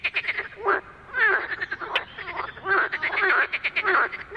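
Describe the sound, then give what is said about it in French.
A chorus of male marsh frogs (Pelophylax ridibundus, laughing frogs, the largest frogs in Europe) croaking loudly, with rapid rattling, laughing bursts that overlap and pulse throughout, and no voices present. “cœur des grenouilles chez Aristophane ressemble beaucoup au chant des mâles Pelophylax ridibundus, ridibundus rieur. Ce sont les grenouilles rieuses, les plus grosses grenouilles d'Europe qui vivent en Europe et en Asie centrale.”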